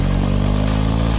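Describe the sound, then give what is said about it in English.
A motorcycle engine idles steadily with a deep, throbbing low rumble, its pulses regular and loud, running alone without any voices, in a radio advert for Bowker BMW Motorrad, the official BMW motorbike centre for Lancashire. “It's time to ride at Bowker BMW Motorrad, the official BMW motorbike centre for Lancashire.”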